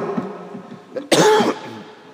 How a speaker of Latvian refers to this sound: Es ļoti atvainojos par savu klepu, bet es ceru, ka, ja pietrūks, tad pravieši, tad kraukļi kaut ko atnesīs.